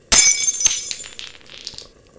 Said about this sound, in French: D'hiver pencha la tête pour regarder et transperça la porcelaine avec ses grandes cornes.